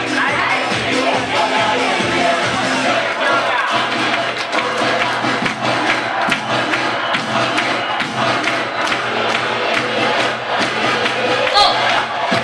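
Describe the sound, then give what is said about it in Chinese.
A large audience claps steadily and loudly for the whole stretch, giving themselves warm applause for pledging to act at once and keep their word, a dense continuous patter of hands mixed with cheering and shouting voices from the crowd. “哦，这个时候鼓掌不要鼓太久，鼓太久他们该醒了。”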